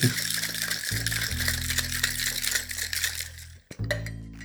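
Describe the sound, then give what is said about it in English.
Ice rattles hard inside a cocktail shaker in a fast, steady rhythm for several seconds, loud, with a low hum underneath, before it abruptly stops and briefly resumes, while an Aviation cocktail of gin, maraschino liqueur, lemon juice and creme de violette is being shaken. “Shake generously.”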